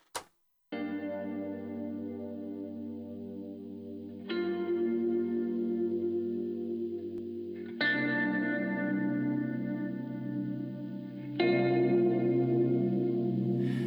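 A hip-hop track opens with thick, effect-laden synth chords that shift every few seconds, sustained and fairly loud, with a warbly chorus-like texture and no vocals yet.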